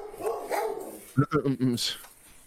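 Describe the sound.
A quick run of four sharp, loud dog barks in a row, following a stretch of indistinct voices and background noise.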